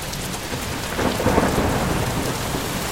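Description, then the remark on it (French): Steady rain pours down during a summer evening thunderstorm while a loud, low rumble of thunder swells after the first second and rolls on, with no voices. “Quand le tonnerre empire, que la pluie se fait plus dorue, elle rentre dans sa chambre pour dormir ou pleurer.”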